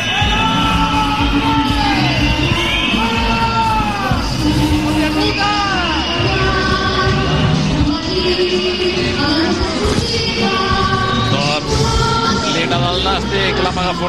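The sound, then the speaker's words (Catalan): At the end of a match at the new stadium, the crowd whistles loudly and continuously at the defeated Nàstic players, dozens of shrill whistles sliding up and down over one another above a dense roar of shouting and yelling. “S'ha acabat el partit, xiulada al nou estadi.”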